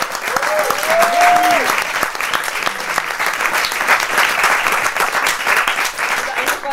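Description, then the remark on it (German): Sustained audience applause, a dense steady wash of many hands clapping throughout, with a brief rising whistle or cheer near the start. “Meine Damen und Herren, Applaus für Frau Selina!”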